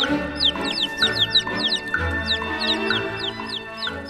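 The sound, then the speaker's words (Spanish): A hen clucks in low, steady bursts, calling her newly hatched chicks to come out, while a crowd of chicks peeps rapidly and continuously over her, fairly loud. “Al pasar los 21 días, cuando ya se oye que pías, mamá nos cacarea para que salgamos afuera.”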